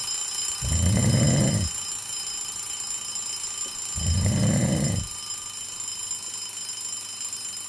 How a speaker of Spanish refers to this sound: Del despertador